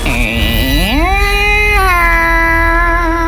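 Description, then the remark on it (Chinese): A bowed erhu plays a few long, reedy notes, sliding upward in a smooth glide before settling into a steady, held tone. The playing is clear and fairly loud, with no voices. Heard at home, coming from the shrine area by the front door. “有人拉二胡， 有人拉二胡，有人拉二胡”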